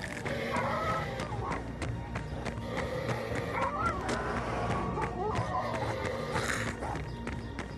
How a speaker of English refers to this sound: That zombie dog is chasing me! This dog is more relentless than the deadheads. I can't outrun him.